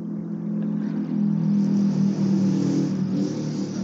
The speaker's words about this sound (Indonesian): motor lewat ya